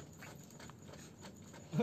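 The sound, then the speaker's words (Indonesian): A soft, airy exhale of cigarette smoke, steady for nearly two seconds, ending in a brief louder puff of breath. “suara asap rokok iya emang asap rokok gimana suaranya kayak gini”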